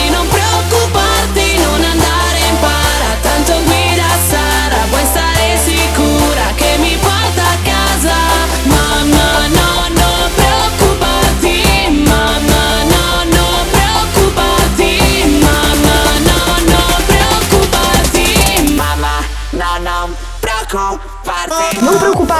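A loud, dense dance track plays on the radio show Wow Top DJ, pounding along with a steady kick-driven beat and bright synths, then thins out near the end as the bass drops away.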